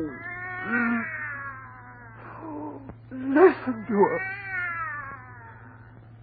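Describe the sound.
A cat yowls in long, wavering, drawn-out cries, loud, rising and falling over several seconds, with a brief spoken line at the start and a steady low hum beneath.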